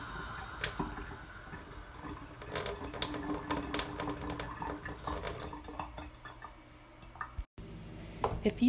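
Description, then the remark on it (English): A kitchen faucet runs just a little water in a thin stream into the kitchen sink, with quick irregular splashes and clicks against the sink, then slows to separate drips near the end. No one speaks. “this is just a little bit of water. and then it starts just making a dripping sound”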